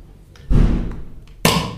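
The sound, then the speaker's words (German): A second beer being opened: a dull thump, then a sudden bright hiss of releasing pressure that carries on to the end. No one speaks. “Ich habe hab, hab mir direkt mal die zweite Hülse aufgemacht.”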